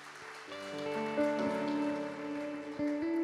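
Audience applause for a man called forward by the speaker, as a steady crackling patter, running beneath sustained, rising keyboard chords that play throughout, with no voices.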